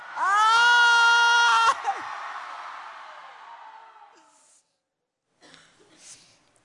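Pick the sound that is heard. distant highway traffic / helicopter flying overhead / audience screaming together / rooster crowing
audience screaming together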